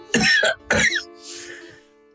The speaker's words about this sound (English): Was that a cough? No.